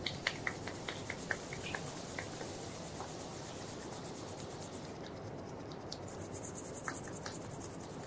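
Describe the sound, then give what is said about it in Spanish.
Steady, dry friction of palms rubbed briskly together to warm them during a guided exercise, a continuous hissing swish with small scratchy ticks, holding an even loudness for several seconds with no voices. “Bien caliente las palmas, los dedos no importan, sino las palmas.”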